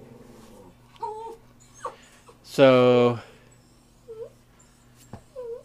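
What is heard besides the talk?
dog whimpering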